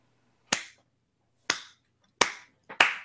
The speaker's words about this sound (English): And I just wanted to give him like that slow applause, right. the quick one, like, right